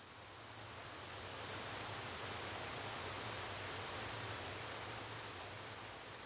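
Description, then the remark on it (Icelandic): A steady, unbroken roar of rushing water from a waterfall in Iceland, with a low rumble beneath it. The sound swells slightly at the start, then holds constant throughout, with no voices. “og um, maður gæti dreyið þetta verk út þá fekk maður mynd af fossi og heyrði um leið hljóð reynsli fossins mm.”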